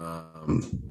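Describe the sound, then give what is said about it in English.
A person sneezes once, abruptly, right after a short hesitant vocal sound, with a brief throaty burst trailing after it. “Bless you.”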